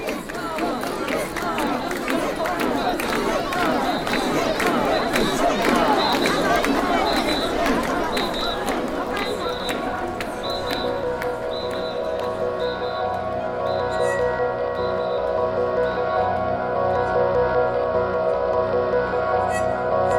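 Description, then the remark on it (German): A dense festival crowd carrying portable shrines through the streets around Tokyo's oldest temple surges and chants in a noisy, bustling street, with shouting voices and rhythmic calls, while a repeated high chime pulses steadily above the din. “Eng aneinander gepresst schwitzen sie unter den tragbaren Schreinen, die sie einen Tag lang durch die Straßen um den ältesten Tempel Tokios schleppen”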